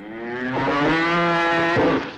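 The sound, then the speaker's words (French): A single long, loud cow moo holding a steady low pitch for about two seconds with a slight rise and throaty wobble near the end before fading out, from the 1968 French TV advertisement "La vache dans le placard" for Régilait powdered milk. “Plus exactement, le 1er octobre 1968 à 9h55, avec la pub La vache dans le placard par Régilet.”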